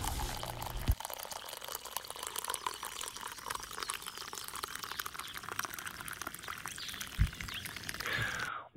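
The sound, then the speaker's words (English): Hot liquid, likely coffee, pours steadily into a cup for several seconds, a bright splashing stream whose pitch rises slightly as the cup fills, with no one speaking. “So pour yourself a hot cup and enjoy the show.”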